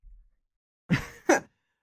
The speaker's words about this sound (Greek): βαθιά ανάσα. Βαθιά ανάσα.